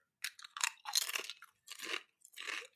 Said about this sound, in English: This is just me trying to snack without ingesting nine thousand carbs and starches and all those fun things that really mm. slow me down. Mm. But yeah, this is just egg whites and bone broth and chicken breast.